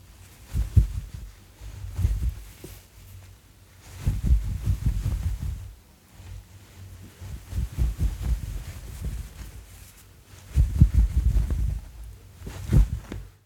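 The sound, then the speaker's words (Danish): Thick tweed wool fabric is rubbed, giving a deep, muffled rumbling in about five slow, repeated strokes with brief quieter pauses between them. “Kan I høre sådan en dyb bulleren?”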